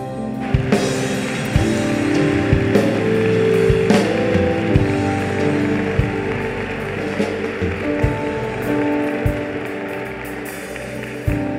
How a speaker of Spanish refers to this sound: Dale un fuerte aplauso al Rey.